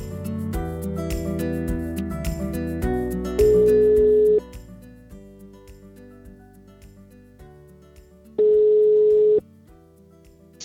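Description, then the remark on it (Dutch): A phone call is being placed: two steady ringback tones, each about a second long and several seconds apart, sounding clearly over continuous background music. “In deze aflevering ga ik bellen zoals ik heb beloofd in de vorige aflevering”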